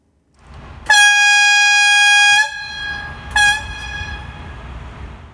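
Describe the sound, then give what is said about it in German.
The horn of a VT2E diesel-electric railcar sounds one long, loud, steady blast, then a brief second toot, each ringing out briefly over a low engine rumble. No one speaks. “So klingt die Pfeife des VT2E.”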